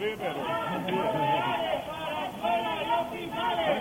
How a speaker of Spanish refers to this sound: Con actos protocolarios en la Alcazaba de Badajoz y en el Castillo de Elba se ha sellado la reapertura de fronteras, aunque en Badajoz el rey Felipe VI ha tenido que escuchar los gritos de algunos ciudadanos que pedían presupuesto para sanidad.